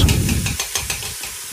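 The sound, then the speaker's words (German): Thoroughly drained potatoes frying in hot oil, a steady crackling sizzle that opens with a low rumble, then breaks into a run of short, rhythmic bursts of hiss. No one speaks. “So, dann gründlich abtropfen lassen und ab ins Öl damit.”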